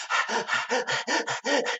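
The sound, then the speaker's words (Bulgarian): A person imitates hyperventilation with about nine rapid, loud panting breaths in a steady rhythm, dog-like and breathy, with no talking. “това е хипервентилация.”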